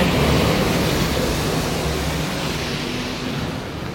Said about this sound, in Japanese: ちょっと車が通ってうるさいですね